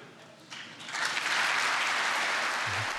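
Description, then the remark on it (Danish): Applause starting up in response to a speaker's description of the Venstre party: scattered claps grow within a second into steady, dense clapping from a crowd that holds at a loud level to the end. “sådan lidt snublende øh, klapsalver, der sådan kommer i gang på, på, den, på den karakteristik.”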